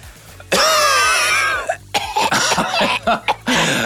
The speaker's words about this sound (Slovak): ja som ten, kto občas trošku pokašliava v štúdiu.